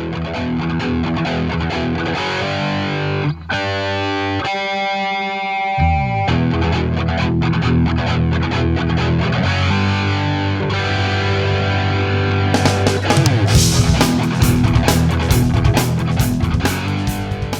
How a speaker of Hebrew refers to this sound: אז אנחנו נריץ על פתיח ואז אנחנו נדבר.